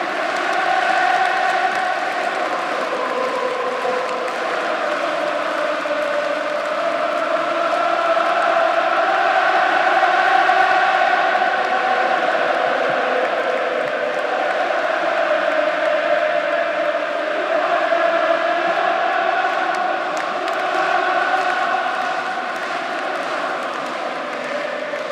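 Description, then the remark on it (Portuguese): A huge stadium crowd at Anfield on a Champions League night, Liverpool leading Barcelona 3-0, stands singing 'Ale, Ale, Ale' and cheering, a dense, steady roar with chanted melodic lines rising and falling, loud and sustained with no single voice standing out. “3 a 0 Liverpool, o estádio inteiro de pé, cantando Ale, Ale, Ale, a torcida do Barcelona quieta.”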